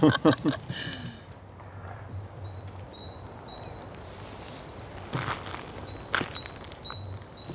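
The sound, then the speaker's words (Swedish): Small birds chirp and tweet in short, high-pitched bursts outdoors, repeating steadily over a quiet background with occasional soft cracking sounds from ice. A brief voice sounds at the very start. “Det är fåglarna som tror att det är vår.”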